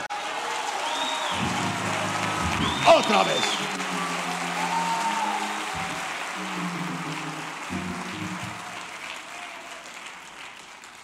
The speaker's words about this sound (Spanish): Aplauda, por favor.